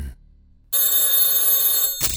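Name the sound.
telephone ringing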